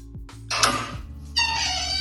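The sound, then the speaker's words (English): A cat meows twice in quick succession, fairly loud, the second call drawn out longer, over a faint low background hum with no voices. “Oh, cute. It's a cat.”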